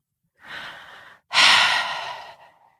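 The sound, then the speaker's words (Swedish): A baby's soft breathing in the silence after a song at a parent-and-baby singing group: a gentle inhale followed by a louder, longer exhaling sigh that trails off, quiet with no talking. “En andning, en suck, en arm som viftar.”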